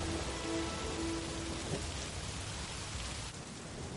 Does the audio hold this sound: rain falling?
yes